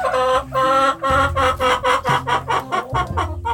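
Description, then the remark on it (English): Agitated, fighting hens cluck and squawk in a rapid, overlapping burst of harsh, nasal calls, loud, with a low rumbling backdrop underneath. “They're pecking on the ground, and they're they're kind of sometimes pecking with each other, and sometimes there'd be a fight, and there'd be squawking and screaming going on.”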